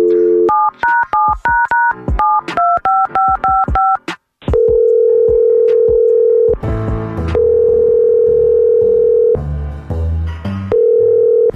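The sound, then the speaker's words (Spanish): A rapid run of touch-tone dialing beeps, paired pitched tones in quick rhythm, as a call is placed to a woman, followed by a steady, loud dial tone hum that continues with brief breaks and some background noise. “ya, muchachos, vamos a marcar a la señora.”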